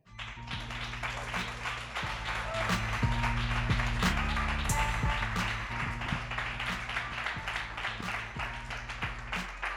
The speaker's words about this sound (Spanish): y ahora sí, se vuelve a repetir, tiramos otra vez y otra compañera que sale aquí a compartir, así que un fortísimo aplauso con todos nosotros, para todas nosotras.